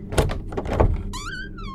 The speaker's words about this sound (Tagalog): Mabilis kong pinihit ang doorknob at nabuksan ko ang pinto.